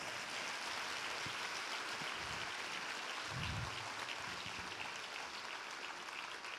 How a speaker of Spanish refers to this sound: Amén. Dale un aplauso si tú lo crees.